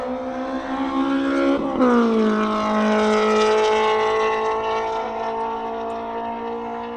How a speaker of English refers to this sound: Honda noises. Making Honda noises.